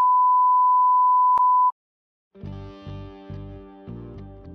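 A loud, steady censor bleep holds one pitch for under two seconds and cuts off abruptly. A brief pause follows, then a buzzy, rhythmically pulsing tone starts up.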